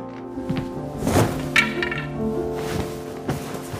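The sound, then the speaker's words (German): A man opens the door of a house with a thunk, followed by a few scattered, soft footsteps on a hard floor as he walks into the kitchen, all set against steady, sustained background music. “Der Mann tritt durch die Tür und geht in die Küche.”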